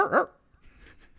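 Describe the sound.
A person imitates the growling bark of a creature they think was the Hodag: one short, loud, rough vocal burst, followed by a quieter, breathy rasping growl trailing off.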